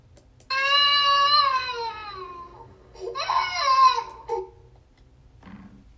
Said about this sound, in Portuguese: Esse é o choro da criança.